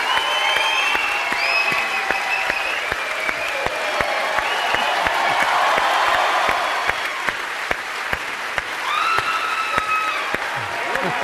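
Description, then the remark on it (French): A large crowd at the Cannes Film Festival applauds steadily and loudly for Sylvester Stallone, a dense wash of clapping with cheers and whistles rising over it, and a few voices calling out near the end. “Car avec un téléphone, on ne peut pas applaudir, baissez les téléphones. Et maintenant, Sylvester Stallone.”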